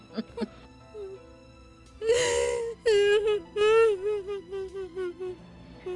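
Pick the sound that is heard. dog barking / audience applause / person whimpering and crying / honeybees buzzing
person whimpering and crying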